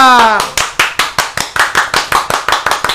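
A short vocal cry opens, then steady rhythmic hand clapping follows, about a dozen sharp, even claps at a brisk, regular pace, as if applauding someone.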